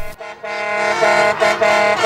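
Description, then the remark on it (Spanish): Loud, sustained truck air horns blare continuously as transport workers' trucks join street protests against a withdrawn tax reform, with brief dips and swells as several horns overlap in a steady honking chorus, dominant with no talk. “Grupos de transportistas han incorporado sus camiones a las protestas contra la reforma fiscal de Duque ya retirada”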